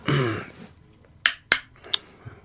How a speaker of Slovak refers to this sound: kliknutie driev, hej, teraz keď hovoríme o tepových, môžeme podrobnejšie si povedať, teda iný zvuk majú vlastne drievka, ktoré sú tvrdé, a celkom iný zvuk majú drievka, ktoré sú meké